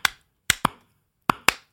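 Sharp hand claps given on a show as three cheers for Kim Frilek, in three loose beats, the last two each doubled as if two people clapped slightly out of sync, with silence between and no talking.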